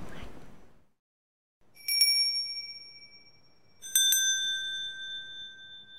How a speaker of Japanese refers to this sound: 個人の魂を供養する鐘法令の音色も、えー、お聞きいただきました